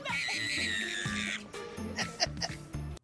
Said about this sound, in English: there are not enough words in the English vernacular for me to describe how angry her screaming makes me. The level to which that is not okay is so high.